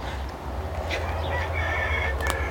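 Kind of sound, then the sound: bird, rooster crowing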